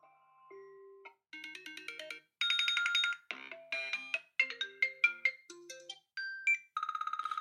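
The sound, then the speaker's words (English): A phone's ringtones cycle through a string of bright synthetic melodies and chimes, each short tonal phrase following the next, ending in a rapid trilling buzz, with no voices. “shall I pick one of the ringtones I have?”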